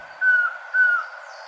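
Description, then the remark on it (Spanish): A collared trogon calls twice in the Valle del Cauca: two clear, steady whistled notes, each slightly falling at the end, evenly spaced, with a soft background hiss. “Esta grabación del Trogón Collarejo fue captada en el Valle del Cauca y forma parte del Banco de Sonidos de Aves recopilado por el Instituto von Humboldt y la Universidad de Cornell.”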